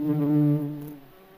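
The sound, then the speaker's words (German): A steady, droning buzz of countless bumblebees and honeybees collecting nectar on purple lavender blossoms, loud at first and then easing slightly, with no voices present. “Doch du gehst weiter und hörst ein intensives, gleichmäßiges Summen. An den lila Lavendelblüten sammeln unzählige Hummeln und Bienen den Nektar.”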